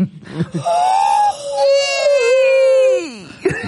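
A cat yowls in the street while being mated: a short wavering wail, then a long, loud, drawn-out howl that sags and drops in pitch at the end, with no talking over it.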